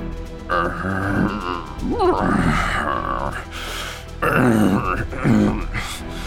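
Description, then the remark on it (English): A voice imitates zombie groans: several drawn-out, guttural moans and growls in close succession, loud, with wavering pitch and brief pauses between them. “I just I thought it would be funny for a second if I just kept doing that to see when ever, anyone would stop me from making zombie noises.”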